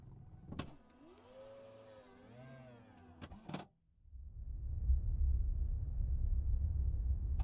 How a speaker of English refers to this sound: The engineer can be seen pressing a few buttons, and a humming sound can be heard everything begins to vibrate.